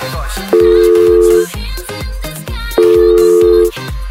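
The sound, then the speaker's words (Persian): Two long, steady telephone tones of an automated phone answering line sound about a second apart, loud, over a thumping rhythmic music track with no voices. “تلفن گویا شبانه روز آماده پاسخگویی به شما”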